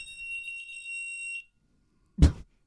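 A fire brigade alert tone, a steady, shrill electronic beep held for about a second and a half, cuts off abruptly. After a brief silence comes a short, loud thump.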